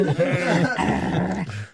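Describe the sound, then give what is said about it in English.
A person's voice imitates a dog growling: one fairly loud, rough growl lasting under two seconds, with a wavering, rumbling pitch and no other sounds around it. “You know, it's not the dog's growling.”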